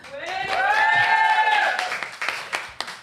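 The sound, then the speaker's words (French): A studio audience applauds with scattered claps over about three seconds, joined early on by a sustained cheering whoop that fades as the clapping thins out. “Autour de cette table et aujourd'hui devant un public dans nos studios. Merci à eux pour le soutien. On peut les entendre.”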